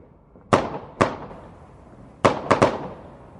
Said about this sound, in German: Wir haben ja schon erfahren, was es mit der Knallerei an Silvester auf sich hat. Chris hat sich dann mal ein Superlativfeuerwerk für euch rausgesucht.